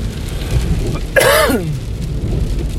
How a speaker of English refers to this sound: Pardon my cough.